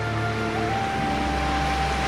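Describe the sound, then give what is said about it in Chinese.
Gentle sea waves wash over a soft, fine sand beach in the evening, in a steady, soft rushing hiss that neither swells nor breaks sharply, with no voices present. “发出温柔的刷刷声，晚来的海风，清新而又凉爽。”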